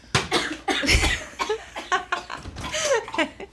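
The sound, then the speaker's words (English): A prolonged coughing fit: a rapid string of harsh, raspy coughs, one after another with barely a pause, fairly loud throughout and with no talking. “it's flu season. We got a cough”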